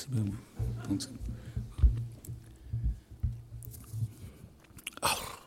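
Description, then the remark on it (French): Wet chewing and biting sounds in an irregular rhythm, with soft mouth noises and crunches, as someone eats a cold dish from Arras, France, of rabbit, chicken and veal set in jelly, ending in a brief burst of noise. “Poche-flèche d'Arras, tu manges un jour Arras, tu dégustes là maintenant Arras, tu croques le poulet d'Arras, tu mâchouilles le lapin d'Arras, tu suçotes le porc d'Arras, tu savores la gélatine d'Arras”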